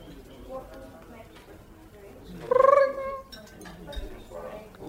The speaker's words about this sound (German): Oh, das ist aber ein seltsames Geräusch für so eine Messingglocke. Ach, dann mal. Ist die wirklich aus Messing? Das ist gar keine Messing. Guck mal, das ist, das ist elektronisch, die sieht nur so aus.